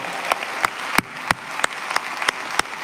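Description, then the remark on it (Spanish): A Spanish-speaking audience applauds loudly and continuously for the name of Jesus, a dense wash of many hands with sharp, evenly spaced accents about three times per second, like clapping in time. No one speaks. “Demos un fuerte aplauso si lo vamos a hacer.”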